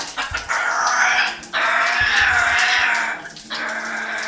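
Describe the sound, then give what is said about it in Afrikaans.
A parrot growls at a microphone in three harsh, raspy bursts, each lasting a second or more, with short pauses between them and faint running water in the background. “Ja, hy grom vir daai mikrofoon.”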